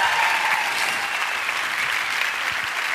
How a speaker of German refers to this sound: Es ist dein Applaus, …, Alter.